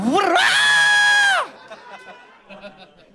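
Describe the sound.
A loud, high-pitched excited scream rises and holds for over a second, like a crowd shrieking together, then cuts off abruptly, leaving quieter murmuring and scattered voices.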